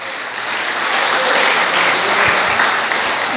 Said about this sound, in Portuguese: Irmãos, se os irmãos aplaudirem sem glorificar o nome de Jesus, eu vou pensar que essas palmas é para mim, eu vou ficar vaidoso. Viu? Toda vez que bater palma, glorifico o nome do Senhor Jesus, tá bom?